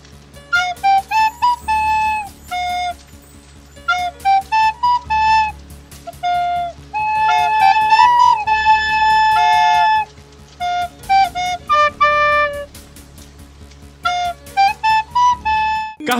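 A stately, triumphant instrumental theme plays on its own: a bright melody in short repeated phrases and long held notes over a steady low drone, fairly loud, with no voices.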